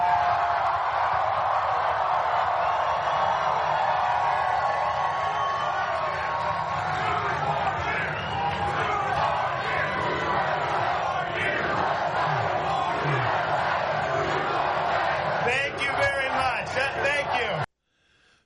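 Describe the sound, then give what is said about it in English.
A large crowd at Governor DeSantis's election-night victory speech in Florida chants "two more years" over and over, a loud, dense roar of many voices that holds steady for about seventeen seconds before cutting off abruptly. “Two more years was the chant, in case you couldn't hear it.”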